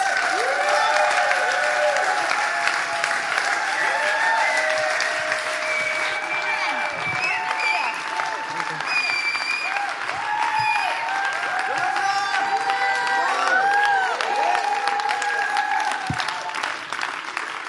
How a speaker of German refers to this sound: Wir begrüßen auf dieser Bühne Jonathan Anschau und mit einem großen Applaus